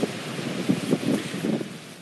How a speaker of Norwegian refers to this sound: Det blåser kuling her ute. Det er for hardt vær ennå til å kunne gjøre noe sånn som det ser ut så langt.